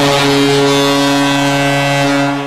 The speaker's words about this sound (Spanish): Y con esta bocina llega el momento de despedirnos de un nuevo programa de Hablemos de Hockey.